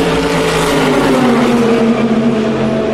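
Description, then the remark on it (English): Loud racing car engines scream past on the start-finish straight of a race circuit, a continuous high-revving roar whose pitch slides slightly downward as they go by, echoing with reverb. “probably recognise from the sound of the cars where we are at the moment. Listen to the reverb.”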